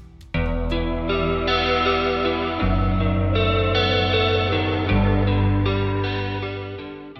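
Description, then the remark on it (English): An echoey, chorus-drenched guitar arpeggio rings out steadily and loudly, notes blurring together over deep sustained bass tones that shift twice; no one speaks. “They're sort they're, of echoey. And, yeah, it's using yeah. a chorus effect,”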